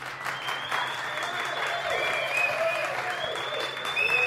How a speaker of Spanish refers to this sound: Eh, así que vamos a recibir con un fuerte aplauso